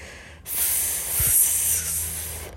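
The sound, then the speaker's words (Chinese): An actress dressed as a snake imitates a snake with one long, steady hiss lasting about two seconds, bright and breathy, beginning abruptly after a brief silence and ending sharply. “蛇女士，蛇女士发出嘶嘶声。”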